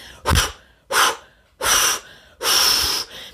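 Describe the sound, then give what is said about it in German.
A person huffs out four forceful, rhythmic breaths, each a broad noisy burst with short gaps, mimicking a steam locomotive's chuffing; the last breath is longest. The person is deliberately exhaling intensely to relieve a side stitch. “Ich gebe immer den Tipp mit, zu atmen wie eine Lokomotive.”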